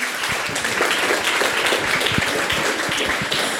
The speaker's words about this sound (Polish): wielkie brawa dla niej